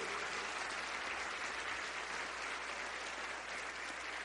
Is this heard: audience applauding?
yes